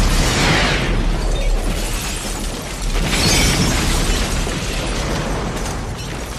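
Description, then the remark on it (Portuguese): A loud early-morning explosion that hit three semi-detached houses roars with dense, rumbling noise, surging twice with crackling, shattering debris, and a continuous thunderous wash in between. No one speaks. “Uma explosão no início da manhã que atingiu três casas conjugadas.”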